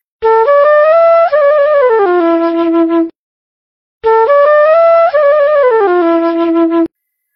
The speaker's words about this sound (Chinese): 听一下竹笛的声音，铜笛的声音。